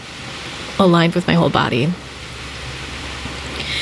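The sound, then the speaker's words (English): Pacific Ocean waves crash against rocks in a steady, hissing roar that fills the whole clip, swelling slightly toward the end, while a person speaks briefly over it. “And what you're hearing is the Pacific Ocean, the waves crashing against some rocks.”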